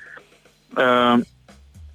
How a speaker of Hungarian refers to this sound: szerintem hallhatjuk is azt, hogy te hogy tényleg SMS-t küldesz 2018-ban